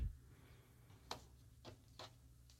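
Soft, sharp clicks of a clock ticking sound at a roughly steady pace against a quiet, low background hum, with no one speaking.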